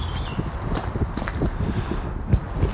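Footsteps of two people walking on through a park, a steady series of soft crunching steps over light ambient background noise, with a faint high tone briefly at the start.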